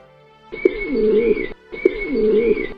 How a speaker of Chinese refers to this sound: 三只小鸽子在笼子里叫着。哦，可怜的小鸽子。